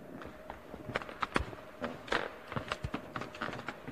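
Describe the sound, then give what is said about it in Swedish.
Footsteps moving across an old wooden floor in an old house, with irregular creaks and knocks under each step, moderately loud, with no one speaking. “det knarrar så där fint att man vet att man är ett gammalt hus.”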